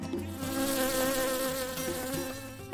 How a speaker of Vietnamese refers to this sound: Đúng lúc đó thì một con ong to bay đến, vo ve quanh mặt Nam Y.